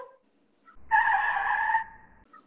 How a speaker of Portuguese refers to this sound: O carro derrapa.